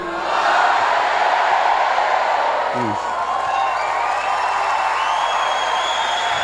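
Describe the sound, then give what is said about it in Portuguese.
A church audience shouts "Glória a Deus" together and applauds, a loud, steady roar of many voices and clapping that holds without a break for several seconds. “Sabe o que eu gostaria que a igreja fizesse agora? Desce um glória a Deus forte aí.”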